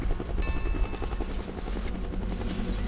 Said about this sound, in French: Dans un vrombissement de turbine, le lourd appareil s'éleva d'abord doucement, puis de plus en plus vite, jusqu'à n'être plus qu'un petit point à l'horizon.